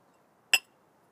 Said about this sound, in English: Anybody that is uh, raising children right now, shout out, respect, cheers to you, clink clink.